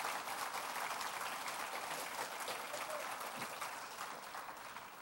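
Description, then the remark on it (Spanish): An audience claps steadily, a dense, continuous wash of many hands applauding that holds at an even level and tapers slightly at the end, with a few faint voices mixed in. “Dele un fuerte aplauso, está bien, hermano.”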